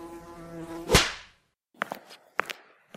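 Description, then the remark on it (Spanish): A fly buzzes with a steady droning hum for about a second, cut off by a sharp whip-like crack, then silence and a few short, dry taps. “La mosca vive en justa medida.”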